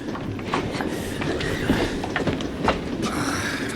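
A train rumbles and clatters steadily along the rails, a dense continuous roar with faint rhythmic clicks and occasional sharper knocks, fairly loud throughout.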